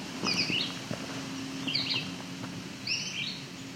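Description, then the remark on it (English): Red-eyed vireo song at a forest edge on alvar with exposed rock: three short, high, slurred phrases separated by pauses of about a second, over a faint steady low hum and light background rustle. “Lots of red-eyed vireo here.”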